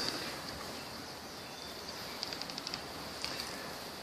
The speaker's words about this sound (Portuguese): Estava fazendo algumas coisas e os passarinhos começaram a cantar.